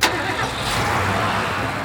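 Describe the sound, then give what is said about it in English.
An airplane engine starts for takeoff on a mission for Champ City with a sharp burst, then settles into a steady, loud mechanical roar with a low rumble for the rest of the moment. No one speaks. “All right, Bruce, you're all set for takeoff. Champ City is lucky we've got a plane as fast as you to take on this mission.”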